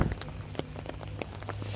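Steady rain patters, with scattered droplets striking a hard surface in an irregular rhythm over a low, continuous hum, with no voices present.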